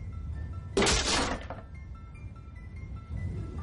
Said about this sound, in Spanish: La puerta se vence.